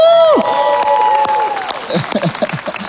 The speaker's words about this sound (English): And uh, can we just give another round of applause for our Stevens Point campus? Woo!